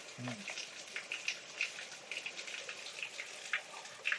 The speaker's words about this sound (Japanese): 多分ね、水の音すっごいすると思う。ああ、なんか、人間が聞くと、水の音無視できる。うん、意識した時しか水の音聞こえないですけど、機械で撮るとすっごい水の音する。